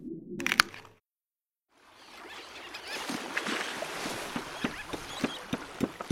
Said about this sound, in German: der portugiesische Austernzüchter, hat einen Netzsack voll mit Austern vom knietiefen sandigen Meeresboden in sein Boot gehieft. Geankert hat er an einer seiner Austernbänke, ein paar hundert Meter vor dem Ufer der kleinen Insel Culatra.